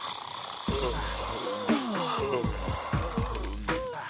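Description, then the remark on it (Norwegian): A celebrity yawns aloud for a guess-who-is-yawning contest, a drawn-out voiced yawn whose pitch sags and wavers through several breathy, groaning swells over a steady hissy background. “Hvem gjesper?”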